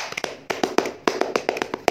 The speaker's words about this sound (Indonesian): Tepuk tangan untuk kita semua. Uh. Tepuk pramuka.